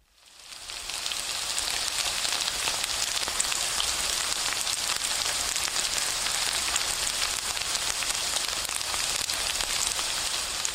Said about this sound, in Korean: 지금 듣고 있는 이 소리, 파전 붙이는 소리를 녹음한 것입니다. 그런데 가만히 집중해서 듣고 있으면 비 오는 날 우산 안에서 듣게 되는 소리와 무척 비슷하다는 생각이 들기도 합니다.